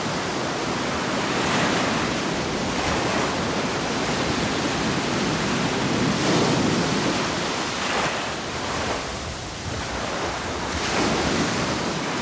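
Ocean waves wash steadily onto the shore, a continuous broad roar of surf with gentle swells rising and falling every few seconds. No voices are heard.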